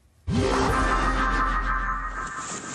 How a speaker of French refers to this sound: L'île de Beauté, secouée par des rafales extrêmes. Des vents jusqu'à 224 km/h.